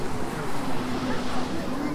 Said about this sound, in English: Boats on the water.